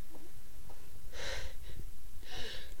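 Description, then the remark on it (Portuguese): Two sharp, hissy sneezes burst out about a second apart, with a short snort between them over a low background rumble and no talking. “Saúde, amiga.”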